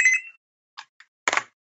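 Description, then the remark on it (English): A short electronic phone ring chirps briefly, followed by a few quick clicks and a louder clatter as the handset is handled and the call is cut off. No talking. “and that was my phone. I just I just hung up.”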